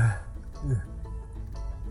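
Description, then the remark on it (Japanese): A single low, throaty burp rumbles out, a short guttural belch with some background noise around it and no talking. “うあ、えー、ゲップ申し訳ございません”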